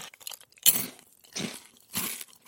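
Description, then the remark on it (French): Someone chews wild berries with wet, crunchy bites. A sharp crunch opens a run of about three chewing bursts, each fairly quiet, with no talking. “Hmm, je renifle et je mange ces délicieuses petites baies sauvages, là, tu vois”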